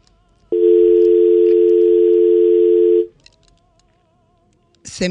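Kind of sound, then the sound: signal or alarm, telephone dial tone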